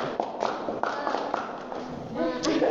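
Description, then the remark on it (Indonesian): A group does a 'tepuk semangat' (spirit clap) chant, clapping in a steady rhythm, sharp bright claps landing roughly every quarter second, while many voices chant along together, the chanting growing louder toward the end. “Tepuk semangat.”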